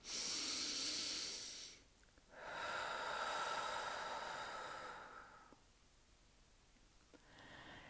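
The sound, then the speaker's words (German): Deep breathing: a long, loud, airy inhale followed by a brief pause and a slower, fuller exhale that fades out. No one speaks. “Ich atme Luft tief ein und aus und verteile die Liebe in jede Zelle meines Körpers.”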